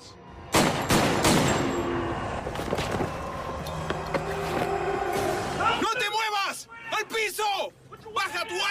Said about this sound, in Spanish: Parecía cámara lenta. Escuché la grabación de la cinta y los disparos fueron sucesivos. Pero en ese momento parecía que había tal vez uno o dos segundos entre los disparos reales.